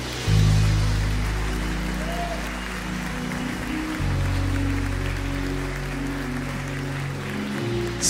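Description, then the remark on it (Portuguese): A crowd applauds the Lord after a Bible reading, steadily for about eight seconds, a dense, even wash of clapping that holds its loudness throughout, with low held tones humming underneath. “Você pode aplaudir o Senhor por essa palavra maravilhosa.”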